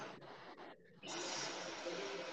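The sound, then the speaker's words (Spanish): Several people breathe together, in and out through the nose only and at the same time. A broad airy rush of air gives way to a short lull, then a louder, sustained nasal exhalation, steady and without any talking. “Todo el mundo que esté escuchando, vamos todos a respirar a la vez, ¿bien? Con la nariz solamente y exhalamos por la nariz, ¿bien?”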